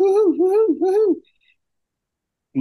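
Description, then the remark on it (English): A voice imitates Daffy Duck's manic hoo-hoo cry, as when Donald Duck blasts a hole in Daffy's piano with a cannon: three loud, swooping whoops in quick succession, then silence before another voice briefly starts at the end. “But the only thing that we couldn't get him to do was the hoo hooing.”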